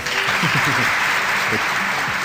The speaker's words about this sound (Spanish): Me gustan esos aplausos, suenan muy reales.